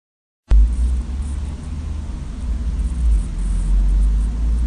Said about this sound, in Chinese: 就像是一些电子设备会发出来那种噪音啊。